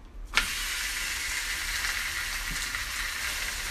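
A beef chuck roast sears in a heated cast iron skillet to brown, starting with a sharp burst and then settling into a steady, loud sizzle with crackling pops throughout as it starts to smoke.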